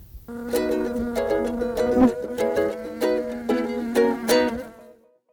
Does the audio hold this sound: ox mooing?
no